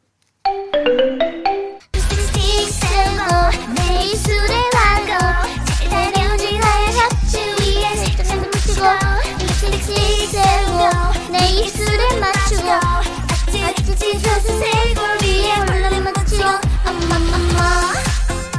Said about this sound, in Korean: 애기가 너무 귀엽게 잘 불러요.